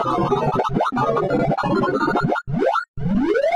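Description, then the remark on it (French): A rapid, chaotic flurry of synthetic beeping tones jumps around in pitch, then gives way to several quick rising sweeps: a sorting program ordering sounds from highest to lowest pitch, the sounds shown as randomly placed straight lines of different lengths sorted from shortest. Loud, no voices. “Ça ressemble à un programme de tri qui classe les sons qu'on lui soumet du plus aigu au plus grave.”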